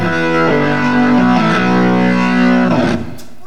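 A loud, distorted rock keyboard plays thick sustained chords that shift a few times, then the sound drops off sharply near the end. No voices are heard.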